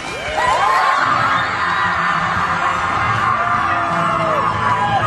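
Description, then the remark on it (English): A large crowd in Green Bay cheers and shouts in celebration as the Kettle Moraine Lady Lasers win the Division One girls state basketball title, with excited whoops and high-pitched screams rising over a loud, steady roar of voices that fills the whole stretch. “sound of celebration in Green Bay.”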